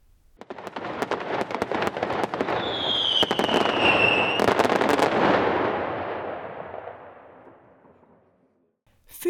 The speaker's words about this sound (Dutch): En met harde knallers kun je iedereen laten schrikken. Hoe werkt dat eigenlijk, vuurwerk? En waar komen die knallen en mooie kleuren vandaan?